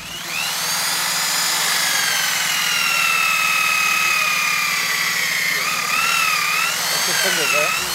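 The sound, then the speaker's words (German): Drilling: a loud, continuous motorized whine with steady high-pitched tones running for several seconds, its pitch wavering briefly toward the end. “Wo da gebohrt wird und wie das mit dem Thema Überwachung zusammenhängt, verraten wir am Ende dieser Ausgabe.”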